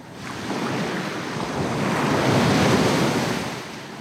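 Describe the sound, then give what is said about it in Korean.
Ocean surf rolls in with a broad, hissing wash that swells to a peak midway and then recedes, steady, with a windy rush underneath and no voices. “아, 시원한 파도 소리네요.”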